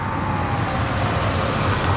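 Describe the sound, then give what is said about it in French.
A car arrives, rumbling steadily, its low engine and road noise holding an even level for a couple of seconds with no voices. “Quelques minutes plus tard, il entendit une voiture arriver.”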